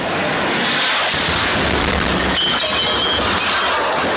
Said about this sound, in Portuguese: Até que depois da terceira barreira, é, eu estava em táxi, e aí a gente ouviu uma. E tudo isso eu, eu fazendo fotos, vídeos, né? E aí depois da terceira barreira, é, eu ouvi uma explosão.